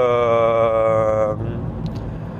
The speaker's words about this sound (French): alors je suis désolé, il y a une moto qui passait à Donf sur une route à 50, autant dire euh, moitié fou, mais c'est pas grave.